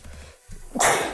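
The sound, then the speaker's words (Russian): A single sharp sneeze bursts out near the end, preceded by a brief low rumble and quiet pause, then a breathy, hissing release fading out. “Будь здоров. Будь здоров.”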